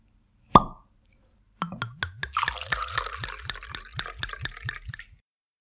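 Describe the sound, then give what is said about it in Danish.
A single sharp pop, then tawny port wine of 19% alcohol glugs from a bottle into glasses in a steady, rapid rhythm of about fifteen gurgles with splashy fizz, fairly loud, with no talking. “Ja, men skal vi ikke lige tage en skål i dagens portvin først?”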